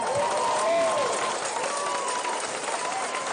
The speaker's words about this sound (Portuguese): Ai, que Excelente, bonito! Muito bom, Gostei. gente. Uma salva de palmas.